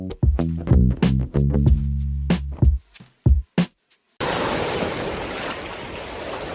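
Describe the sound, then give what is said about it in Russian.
A short burst of punchy music gives way to a steady, fairly loud rush of sea surf washing against the shore, continuing alone for the last couple of seconds. “Я, видите, выбрался в выходные на море немножко.”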